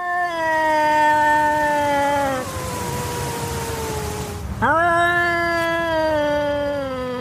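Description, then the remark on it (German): A cat lets out a long, loud, wavering warning yowl that slides slowly downward, breaks off briefly with a hiss-like rasp, then resumes as another drawn-out, tense caterwaul, with no talking. “Man sollte den Katzengesang aber nicht verwechseln mit dem Katzenjaulen.”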